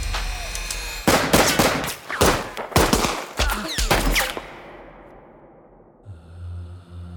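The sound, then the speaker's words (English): A rapid volley of six loud, sharp gunshots cracks in quick irregular succession, then fades into a lingering echo and a low rumble. “With their guns at the ready, the three FBI agents fire six shots at the fleeing Dillinger”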